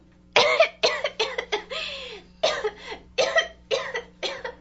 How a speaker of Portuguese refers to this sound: Ao começar a falar, uma terrível tosse a acometeu numa indisfarçável crise de bronquite. Avermelhou-se toda, com as veias querendo saltar-lhe do pescoço, na imensa força que fazia ao tentar respirar